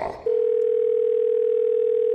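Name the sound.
telephone ringing tone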